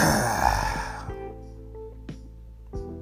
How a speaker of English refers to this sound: I know y'all like, damn, this nigga breathing hard. I'm fat. The fuck? I can't breathe sometimes.